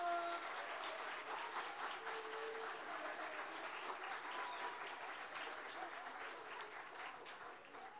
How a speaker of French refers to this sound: À l'issue de leur performance, nous avons un magnifique jury qui est au premier rang, qu'on peut applaudir déjà.